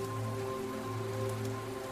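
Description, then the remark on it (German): Steady rain patters continuously over a surface during a storm raging outside, a dense unbroken hiss with a low sustained drone humming beneath it; no voices. “Hier bist du sicher und kannst dem Lied des Regens und des Sturmes zuhören.”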